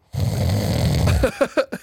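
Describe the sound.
A voice mimics a man snoring in bed with one long, rumbling, guttural inhale, followed by a few short, breathy snorts. It is fairly loud, with no other sounds around it.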